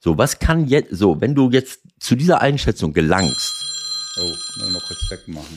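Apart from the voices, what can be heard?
alarm clock ringing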